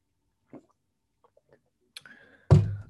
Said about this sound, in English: And so, excuse me, I'm taking another drink of water.